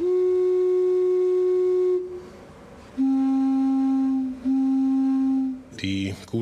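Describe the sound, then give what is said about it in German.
A single organ pipe is played to show the tone colour of individual pipes. It sounds a steady, reedy, whistle-like tone for about two seconds, then sounds twice more slightly lower with short pauses between, ending with a brief clatter. “wo dann der Besucher auch selbst aktiv werden darf und auch mal eine Pfeife anspielen darf, um die Verschiedenheit der Klangfarben der einzelnen Pfeifen zu bekommen.”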